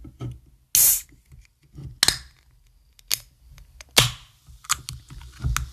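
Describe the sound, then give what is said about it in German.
A pink grapefruit drink container is opened in front of the microphone with a sharp pop and brief fizzy hiss, surrounded by several loud clicks and handling noises. No one speaks. “Ich mache auf jeden Fall hier mal ganz kurz äh, auf vor Mikrofon.”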